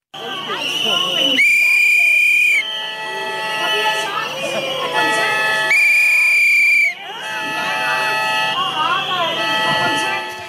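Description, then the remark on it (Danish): Protesters at a May Day event in Aarhus, Denmark, in 2013 blow whistles during a visit by then Prime Minister Helle Thorning-Schmidt, after her government ended the teachers' lockout, in a shrill, constant din, with two long, piercing blasts standing out while a crowd shouts and murmurs underneath. “Hvorfor vil du gerne undgå, at, øh, at folk stiller sig op med fløjter?”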